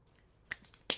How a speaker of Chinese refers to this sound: 这是杨丽萍老师指甲的声音，她没说话。